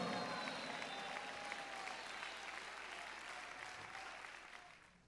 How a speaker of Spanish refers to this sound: Dale fuerte ese aplauso al Señor en esta hora.